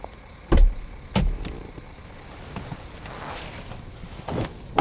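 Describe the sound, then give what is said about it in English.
A car door opens and thumps shut, then a couple more solid clunks as someone settles into an old car to accept a ride, followed by a low rumbling interior hum and faint creaks of the vehicle. “I've never been in a car like this. Oh, yeah. It's old, but I don't trust those new fancy smart cars.”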